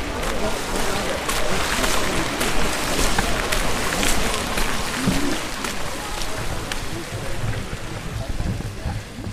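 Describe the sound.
A large fountain on the Residenzplatz in Salzburg splashes and rushes continuously, loud, its steady wash of falling water filling the whole scene with only faint, indistinct voices beneath it.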